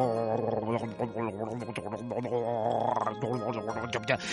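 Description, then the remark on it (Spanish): A voice imitates the empty stomach of a starving fox growling from hunger, a sustained, rumbling, throaty grumble that rises and falls for several seconds, steady, with no other sounds around it. “Oía cómo gruñían sus pobres tripas vacías.”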